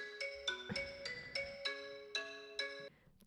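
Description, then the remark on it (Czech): A melodic electronic phone ringtone, a call from the speaker's boyfriend interrupting a recording, plays a bright series of tonal notes in a steady pattern, fairly clear, with a brief clatter at the very end. “A teď zrovna nám do toho nahrávání vstoupil můj přítel s telefonátem.”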